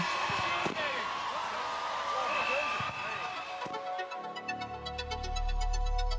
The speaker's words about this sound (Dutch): Hij verstopt zich nog even om de hoek, schopt een voetbal naar buiten en rent daarna in zijn gele shirt met zijn armen wijd omhoog de deur uit.